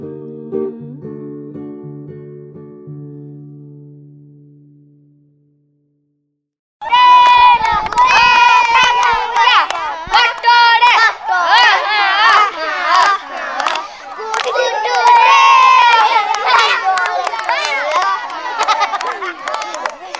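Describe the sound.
After a few seconds of soft tonal notes and a brief silence, a loud, dense crowd of children's voices erupts in overlapping shouts and calls, sustained and lively: children playing games in a courtyard.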